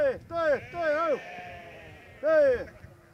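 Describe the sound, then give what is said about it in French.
Corsican ewes that graze on maquis scrub bleating: three wavering, nasal bleats, two in quick succession and a third after a short pause, with a faint hum of background noise. “Moi, je sais que les miennes, c'est des brebis corses, elles mangent le maquis”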